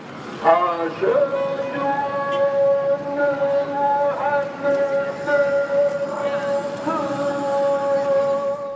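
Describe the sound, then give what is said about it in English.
A call to prayer from the 13th-century Koutoubia mosque in Marrakesh: a single chanting voice wavers through a brief ornamented phrase, then holds one long, steady, clear note over a low background murmur. “That's the call to prayer of the beautiful 13th century central mosque, the Koutoubia.”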